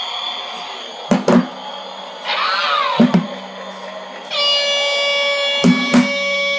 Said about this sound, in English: These are little handheld sound effects. They're called toys. sound machines. Uh, if you're looking online to find them, uh, you can find them in uh, Amazon and eBay. Uh, and you can also find them in dollar stores.